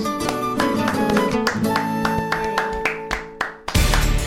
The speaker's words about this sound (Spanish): Un aplauso para Silvia muy fuerte. Y un aplauso muy fuerte también para Alberto Sierra.